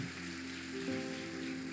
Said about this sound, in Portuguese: Você pode se colocar de pé glorificando ao Senhor Jesus. Vamos aplaudir a Jesus pela vida deles aqui.